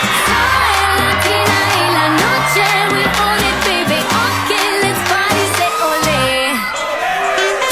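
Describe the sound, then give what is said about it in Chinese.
Loud, continuous applause and crowd cheering with scattered whoops, welcoming a female guest onto a program, lasting several seconds over a bright musical backing with a slowly rising tone. “让我们用热烈的掌声欢迎她。”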